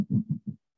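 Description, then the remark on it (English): A voice mimics the scratchy rubbing of an earpiece or hearing aid being pulled out: three or four quick, low, muffled bursts in an uneven rhythm, fairly soft, then silence. “I don't know if you guys noticed it, but there's a scratching sound like this.”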